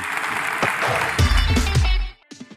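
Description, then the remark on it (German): A loud, dense wash of applause from a live crowd, with some voices mixed in, lasting about two seconds before cutting off abruptly into near silence. “Zum Abschluss, äh, ich dachte erst gerade, das wäre schon ein äh, donnernder Applaus, ist aber in dem Fall nur Regen, weil der donnernde Applaus, der kommt jetzt.”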